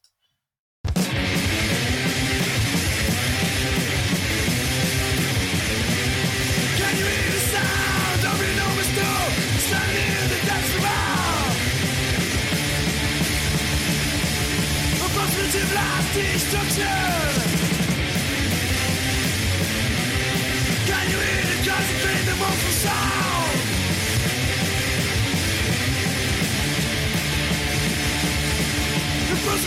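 A thrashing punk rock track roars at full volume, with distorted guitars, pounding drums and hoarse shouted vocals over a relentless, fast beat that stays dense and loud throughout.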